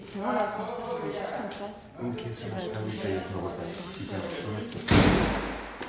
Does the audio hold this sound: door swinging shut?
yes